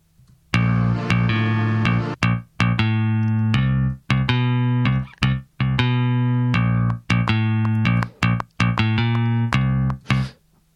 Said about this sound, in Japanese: で、さらに、ベースがちょっと妙なフレーズ弾いてるんですよね、これ。